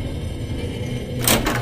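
A steady low rumble builds into a loud, grinding scrape near the end as a large round stone block shakes and rolls to seal a cave mouth. No voices.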